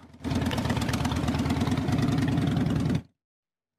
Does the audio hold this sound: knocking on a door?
no